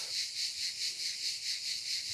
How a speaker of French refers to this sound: Et c'est pourquoi le même son euh, est ici le chant des cigales, alors qu'ailleurs il est le sifflement d'une cocotte minute.